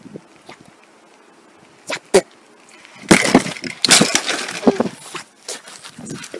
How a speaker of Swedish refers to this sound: Här är cykeln, vilken jävla katastrof. Jag bromsade för hårt med frambromsen. Kan ju hända ibland. Slog fram överstyret.